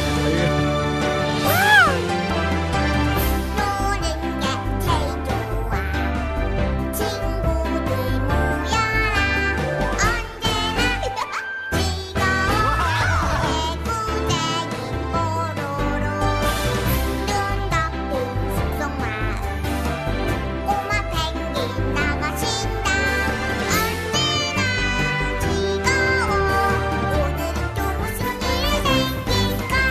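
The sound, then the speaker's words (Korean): A bright, upbeat children's song plays loudly and continuously, with bouncy melody, steady beat and what sounds like sung vocals, with a brief dip in the music partway through. “아이들이 이 노래에 중독되는 건 예.”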